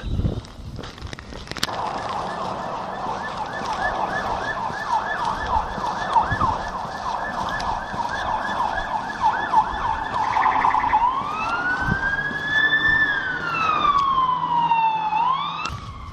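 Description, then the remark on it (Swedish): Sirens of two police cars blare, a fast warbling yelp giving way to slow rising and falling wails as the cars pass, loud over steady street traffic. “En polisbil, två polisbilar.”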